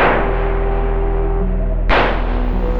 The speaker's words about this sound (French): Les trois hommes entrent dans la boutique de fleurs qui fait face à la cathédrale. C'est celle de Dion O'Banion, fleuriste à ses heures perdues. Quelques instants plus tard, des coups de feu retentissent.